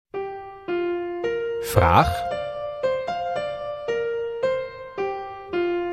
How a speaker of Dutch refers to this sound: Ik laat nog even het begin van de pianoversie horen. Wat je hier hoort is eigenlijk een vraag- en antwoordspelletje. Eerst hoor je solo de vraag en daarna met begeleiding het antwoord.